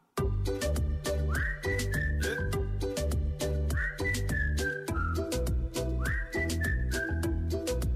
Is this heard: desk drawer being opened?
no